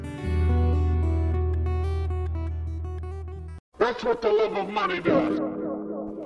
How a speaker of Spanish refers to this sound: esta canción, Bulerías, también te la sabes.